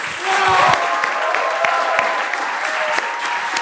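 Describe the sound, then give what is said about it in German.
An audience keeps clapping steadily and densely as the next performer comes on, a continuous wash of hand claps filling the space with a few sharper individual claps standing out, with no voices coming through clearly. “Und jetzt hört nicht auf zu klatschen, denn jetzt kommt mein heterosexueller Lebenspartner und Lebemann”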